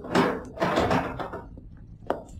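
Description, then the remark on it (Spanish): A house door is opened just enough to let a man pass: a scrape and rattle, a longer creaking sweep, then a short sharp click near the end, with no voices. “Eddie entró en la casa, abriéndole la puerta lo imprescindible para que el coronel pudiera pasar”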